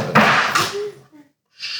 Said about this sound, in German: Machst du ein hier Hörspiel? nee, hier ist einfach nur ein Buch runtergefallen.